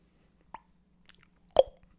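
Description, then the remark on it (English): Two sharp, wet tongue clicks about a second apart, the second louder, with a few faint mouth ticks between them over a low steady hum. No one speaks. “And while he's looking at himself, smiling in the mirror, hears a tongue click.”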